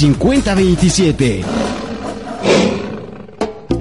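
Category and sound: animal, lion roar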